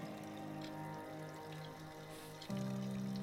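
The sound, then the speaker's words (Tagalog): Water runs steadily from a faucet into a sink, a soft continuous rush that grows fuller and louder about two-thirds of the way through, with a faint low hum underneath. “Huminto siya dun sa may lababo at binuksan niya yung gripo.”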